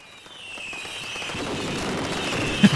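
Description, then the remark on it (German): Fireworks going off at the end of the year: a dense crackling hiss builds steadily with a faint whistling tone above it, ending in one sharp, louder bang near the end. No one speaks. “Feuerwerk zum Schluss.”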